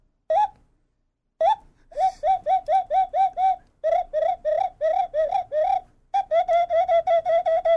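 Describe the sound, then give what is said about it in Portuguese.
A flute-like bird-call whistle imitating a bird: two single chirps, then a rapid run of bright, warbling notes repeated in quick bursts, loud, with no talking. “Tem aqui igual flauta, ó. Aham. Uhum. Ó, vamos então, lá. Então toca o passarinho aí”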